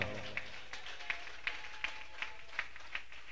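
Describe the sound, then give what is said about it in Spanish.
An audience claps for God in steady unison, about nine sharp claps at a brisk even beat, fairly quiet, with a faint low murmur early on. “A su nombre, porque dice la Biblia, dele palmas a Dios con todo su corazón, porque Dios está aquí en esta hora.”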